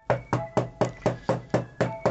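A rapid, steady series of about nine firm knocks on a door, evenly spaced with a solid, hollow thud to each, with no voices.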